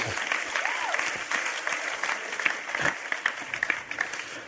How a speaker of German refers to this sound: Vielleicht mal einen Applaus für Multimedia. Wirklich super.